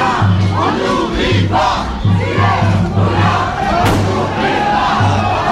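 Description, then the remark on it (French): A dense protest crowd shouts and yells continuously as police charge the crowd with tear gas grenades, a loud roar of many voices with rhythmic low chanting or drumming pulses underneath and occasional sharp bangs. “la police charge sur euh, la foule avec des bombes lacrymo.”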